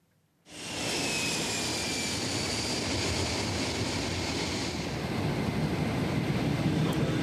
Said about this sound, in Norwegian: En romferge forlater Kennedy Space Center i Florida for siste gang. På toppen av en Boeing 747 flyr den lavt over det grønne sumplandskapet.